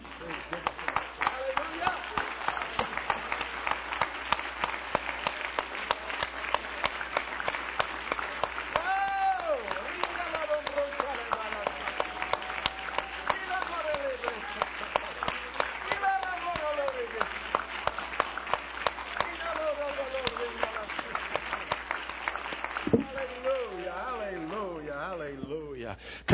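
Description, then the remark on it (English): A church audience claps their hands together steadily unto the Lord for a long stretch, a dense, rhythmic wash of clapping with voices singing or calling out over it. “Stand with me and clap your hands unto the Lord.”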